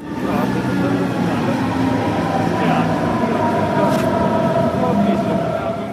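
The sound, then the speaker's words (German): A commuter S-Bahn train pulls into the S-Bahn station Leim, with a loud, steady rumble and whining hum, and a brief hiss of air partway through. “Ankunft am S-Bahnhof Leim.”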